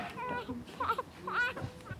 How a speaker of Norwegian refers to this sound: Svak barnegråt og foreldre som tripper frem og tilbake, fulle av spenning og usikkerhet. På nyfødtintensivavdeling på Ullevål sykehus får de som ankom verden litt for tidlig, hjelp til å klare seg videre i livet.